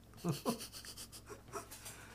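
A dog pants and whines: two quick squeaky whimpers up front, then a few softer, breathier whines over steady panting, all fairly quiet.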